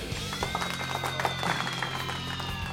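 A steady burst of applause from the staff of a radio program, directed at the listeners, many hands clapping in a dense, continuous patter at moderate volume, with a faint steady hum underneath and no voices.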